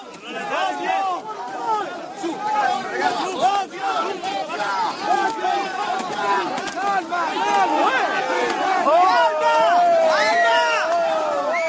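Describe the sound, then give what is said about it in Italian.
A large protest crowd shouts and chants continuously outside warehouse depot gates, protesting the suspension of about thirty immigrant workers of a cooperative serving the depot; many overlapping voices rise and fall in loud, rhythmic bursts with no single speaker standing out. “quelli che possiamo sentire sono gli effetti di, di, di questa protesta, eh, gli effetti sonori.”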